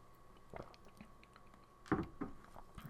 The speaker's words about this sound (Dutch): Even een slokje drinken.